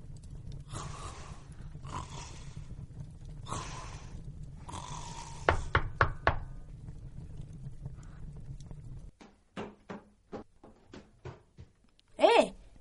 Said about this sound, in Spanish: ¿Quién es esta señora? Está llamando a la puerta de Port Haven.